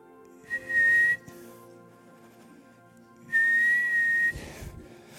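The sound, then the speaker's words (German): Two shrill, steady whistle blasts, each about a second long, separated by a pause, imitated by a human voice; the pitch holds high and flat like a rescue whistle, blown by a woman in the water wearing a life jacket to signal a search boat. “Oh, und das Boot hört dieses Pfeifen und, und der, der, ähm, der, der Scheinwerfer, der Suchscheinwerfer wird auf sie gerichtet”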